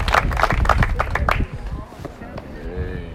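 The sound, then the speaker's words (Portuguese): A crowd applauds the Lord with loud, dense clapping for about a second and a half, then it drops away abruptly and a voice carries on speaking over faint remaining claps. “Vamos dar uma salva de palmas para o Senhor.”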